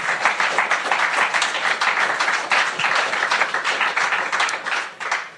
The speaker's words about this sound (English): Anybody listening to the live stream, that's real applause. We do not we do not have a track